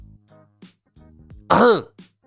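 A few low, murmured grunts lead into one loud, rasping throat-clearing cough near the end, with a brief low hum trailing after it. No words are spoken.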